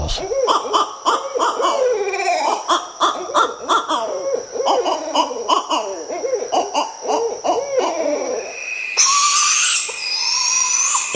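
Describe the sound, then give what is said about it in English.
Several barred owls call back and forth in a loud, overlapping chorus of hoots, cackles and wavering caterwauls, ending with higher, raspy screeching cries. “a couple different owls, all barred”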